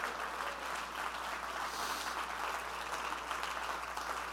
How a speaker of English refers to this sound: Would you clap your hands and praise Him?